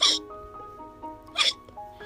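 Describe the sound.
Two sharp voiced hiccups from Pak Pius the whale, one right at the start and another about a second and a half later, fairly loud, with a faint humming voice lingering between them.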